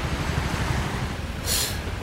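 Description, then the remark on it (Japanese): Sea waves wash onto a beach where a high school student is skipping stones, in a steady, broad rush of surf with a low rumble underneath, and a brief brighter hiss of breaking water near the end. No one speaks. “高校生の子が水切りしてますね海で水切りというこうチャレンジングなねことをしてますね”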